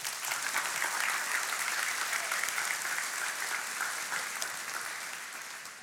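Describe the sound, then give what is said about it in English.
An audience applauds teachers, many hands clapping in a dense, continuous wash of sound that holds strong for several seconds and then begins to ease off slightly at the end. “Can we give these teachers a round of applause?”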